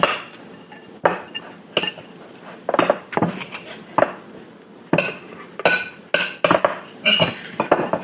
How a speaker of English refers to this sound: Well, so far this roast is very lean. By the way, this roast we're using is a boneless chuck. using the melon knife to chop this down into usable. So they can be hand cut.